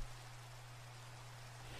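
Steady rain falls in a soft, continuous hiss with no pauses, accompanied by a faint low electrical hum; there are no voices.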